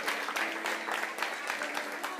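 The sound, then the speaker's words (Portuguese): An audience applauds for Jesus: a dense, steady patter of many hands clapping, sustained at an even, moderate level throughout, with no pauses or clear individual claps standing out. “Dá um aplauso a Jesus.”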